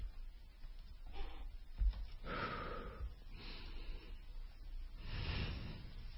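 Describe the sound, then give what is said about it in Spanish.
Several slow, airy breaths drawn in and pushed out, soft and hissing with a slightly papery rasp, made with a hand-held sheet of paper standing in for the throat to show breathing without snoring; no snoring rumble and no talking. “La gente que saca aire y mete aire y no ronca, se oye así.”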